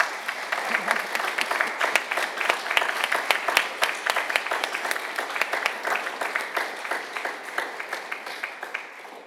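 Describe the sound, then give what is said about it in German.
Sustained applause from an audience during a church service, thanking the musicians, many hands clapping in a dense, steady patter for about nine seconds with no voices standing out. “Vielen herzlichen Dank kann man, glaube ich, einen kleinen Applaus.”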